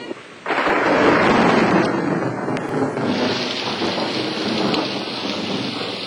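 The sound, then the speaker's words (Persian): A thunderstorm in Paris erupts with a sudden loud crack of thunder, followed by a dense, steady roar of heavy rain and rumbling that gradually settles into constant downpour. “و اما در پاریس خانم ادلا که خواب بود از صدای رد و برق از خواب پرید”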